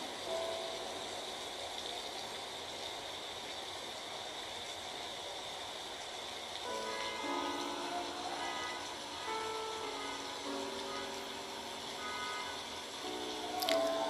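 A steady rain sound effect hisses in the background, and about halfway through droning, tonal vehicle sound effects, like passing traffic or a horn, rise over it and continue to the end. No one speaks.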